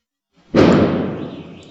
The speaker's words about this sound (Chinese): 有人在放鞭炮了。”呃，都大年初六了，还有人放鞭炮，这也是蛮神奇的。